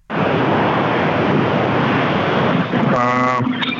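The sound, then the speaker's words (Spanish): Loud, steady roar of subway trains rushing past, heard from inside the subway, filling the whole clip, with a brief tonal whine or voice-like sound rising near the end. “le dije al compañero que estaba en el subterráneo sí. que están pasando acá los trenes y no me quise salir porque iba a perder la señal.”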